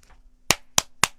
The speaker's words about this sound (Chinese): 皮医生在他耳边用力地拍了拍手